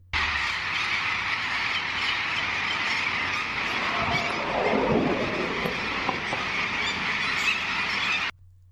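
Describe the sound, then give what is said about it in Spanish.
A dense, continuous din of thousands of parrots squawking and screeching at once at a cliff nesting colony, a loud roaring wall of bird calls that holds steady for several seconds before cutting off abruptly. “Como habéis podido oír, suena a gran multitud, suena que hay muchos loros.”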